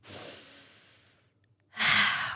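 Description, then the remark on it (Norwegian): A deep breath drawn in through the nose as a breathing exercise, airy, tapering off over about a second; after a short pause a second, louder breath rushes in. No talking. “Eh, og så, når det er over, skal du ta en sånn dyp pust gjennom nesen”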